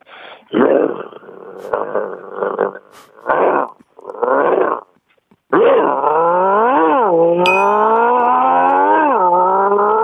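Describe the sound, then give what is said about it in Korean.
A human voice tries to imitate a mid-size 250cc motorcycle starting up but sounds like a bulldog's growl: rough, gravelly growling bursts, a brief pause, then a long, loud, throaty drone that rises and dips in pitch, like an engine revving. “오토바이 아니고 불독이잖아, 불독.”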